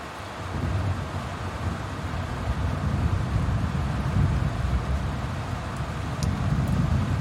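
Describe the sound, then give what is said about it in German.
Steady outdoor hiss of rain and wind with a deep, continuous rumble of thunder rolling far off, heard at a train stop in Germany on a cold day. No voices, just an even wash of stormy weather for several seconds. “Es regnet in der Ferne, gewittert's und es ist kalt.”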